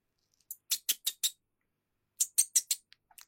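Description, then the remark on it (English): A person's high, squeaky call that they trained their cats to respond to: two quick runs of four or five sharp chirps, separated by a short pause, clear with no talking. “Um, I have I have this little call uh, that I've trained the cats to hear.”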